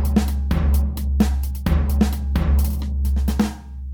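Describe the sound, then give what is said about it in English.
Busy outdoor ambience at the back side of a train station on a hot day: a steady low rumble fills the background while several sharp, noisy bursts break through every half second or so, with no one speaking. “we're standing outside of the train station.”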